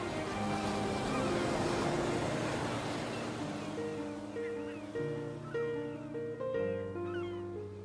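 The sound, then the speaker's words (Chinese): A steady wash of ocean waves, a broad hissing roar at first, then joined by sustained tonal notes that step between pitches and partly cover the surf. No one speaks. “听着海浪的声音，它似乎就可以带我到很远的地方。”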